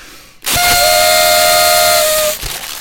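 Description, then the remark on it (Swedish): Party horns are blown as part of a celebration in one long, loud, buzzy blast of nearly two seconds, a steady reedy tone with a slight pitch wobble, cutting off abruptly. No one speaks. “Så då kastar vi Då har vi våra kalas eh, Tutor. tutor iväg.”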